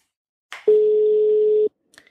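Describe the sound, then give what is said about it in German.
A single steady telephone ringback tone plays for about a second as a phone call goes unanswered, a clear mid-pitched hum over the line, preceded by a short click and followed by faint clicks and silence. “Es bimmelt immer noch.”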